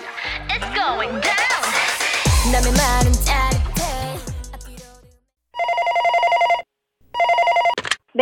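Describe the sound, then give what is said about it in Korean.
A busy musical jingle plays and fades out, then a telephone rings in two steady electronic bursts with a short gap between them, fairly loud, as a radio listenership survey call. “누구에게나 올 수 있는 청취율 조사 전화 받는 법 빠르게 알려드립니다.”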